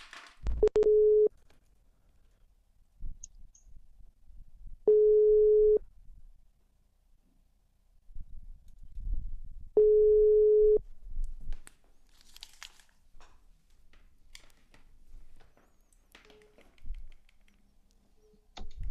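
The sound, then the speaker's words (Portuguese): A phone ringback tone sounds three times while a call is being placed, each steady one-second beep separated by long pauses; the call is then declined, followed by soft crinkling and handling noises with no one speaking. “Já tô ligando. Vamos ver se ele vai atender.”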